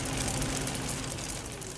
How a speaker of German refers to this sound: es sind 1 Cent Münzen, die aus der großen Prägemaschine rieseln wie ein Wasserfall aus lauter kleinen Kupfertropfen.